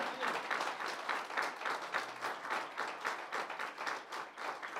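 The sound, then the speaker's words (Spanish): An audience applauds in praise to the Lord, steadily for several seconds, a dense, even wash of many hands clapping with a slight rhythmic pulse and no voices. “Fuerte ese aplauso de alabanza, hermano, que es para el Señor.”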